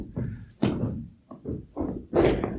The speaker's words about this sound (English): And then maybe you want to stomp and let it resonate after the stomp in the stillness and see what you notice resonating in the stillness.